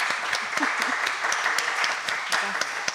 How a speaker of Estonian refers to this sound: teenitud aplaus alustuseks.